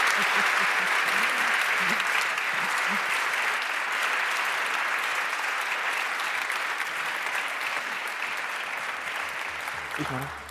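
Sustained audience applause, a dense, steady wash of many hands clapping for about ten seconds, loud and even throughout, tapering only slightly at the very end.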